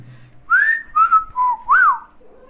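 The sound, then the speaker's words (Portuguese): A person whistles a short tune of about four clear, sliding notes, gliding up and down in pitch. The whistling is fairly loud and stands alone, with no talking over it. “Quase toda vez que eu assovio, ela vem, tá?”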